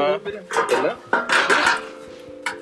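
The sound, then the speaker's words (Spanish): Loud metal clanking and scraping in several irregular bursts, like a heavy iron stove door and grate being handled, as people try to light a coal-burning heater, with voices talking underneath. “Estamos metiendo aquí mucho ruido estamos eh, intentando prender aquí el calefactor eh, a carbón.”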